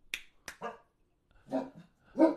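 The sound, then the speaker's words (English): A few short, sharp barks from dogs, spaced unevenly over a couple of seconds, preceded by two quick snapping clicks. “There the dogs go.”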